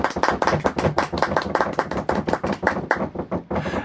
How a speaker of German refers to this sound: Das ist doch einen Applaus wert.